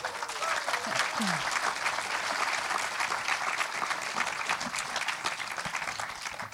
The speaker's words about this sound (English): Yes, well, this is Erik Gandini. Please give him another warm applause.